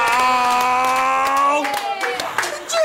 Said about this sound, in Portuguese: Vamos aplaudir!